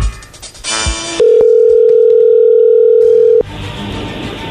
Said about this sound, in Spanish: Así que ahí se está marcando, no haga ruido.